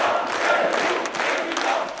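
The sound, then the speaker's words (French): A large audience applauds and cheers in a dense, continuous wash of clapping and voices, loud and steady throughout with no speech standing out, as a speaker enters the hall at the Palais des Congrès in Nice for a rally-like appearance. “Le public qui est venu pour l'acclamer, dès qu'il entre en salle, c'est euh, des applaudissements, des émours, président.”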